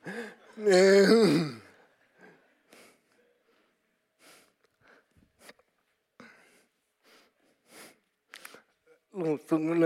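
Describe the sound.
A loud, voiced breath at the start, like a gasp drawn in and let out during a breathing exercise, followed by softer, scattered breathy sounds and a brief vocal burst near the end.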